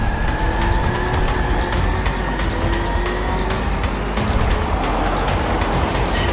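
The Joker's armored car, its rear doors painted with a Joker face, roars and climbs in pitch as it pulls away, loud, with steady rumbling road noise and scattered rattling clanks throughout.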